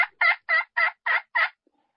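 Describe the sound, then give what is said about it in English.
A pot call imitating a hen turkey's yelp: six raspy, evenly spaced notes in a quick steady rhythm, loud, with no talking over them. “Yes, those main those calls start with a, basically a yelp.”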